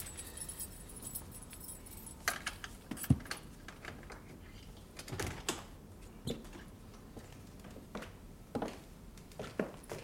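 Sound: keys jangling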